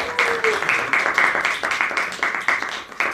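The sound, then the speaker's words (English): A show audience applauds the show's guest steadily for a few seconds, a dense patter of many hands clapping at an even, fairly loud level with no voices over it. “Uh, please give a big round of applause to Kate for being the guest on the show today.”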